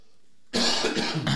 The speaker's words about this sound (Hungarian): Várjál, Köhögök.